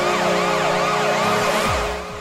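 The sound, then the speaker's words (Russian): The Washington Capitals hockey arena goal siren wails loudly and continuously, rising and falling in quick repeated sweeps over a steady rumbling backdrop, with no one speaking. “Приправленные сирены Вашингтон Capitals. Сирены, сирены приправлены.”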